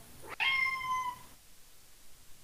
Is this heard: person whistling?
no